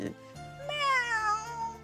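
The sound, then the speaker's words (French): A person imitates a cat with one long, drawn-out meow that rises and then slowly falls in pitch. It is fairly loud, with no other sounds around it. “Est-ce que vous savez imiter une personnalité ou un animal Alors, j'imite très bien les chats et les chats.”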